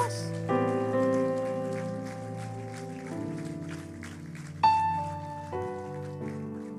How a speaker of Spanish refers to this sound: ¿Puede darle un fuerte aplauso a Dios?